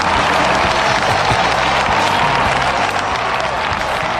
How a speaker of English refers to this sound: Oh, raucous applause.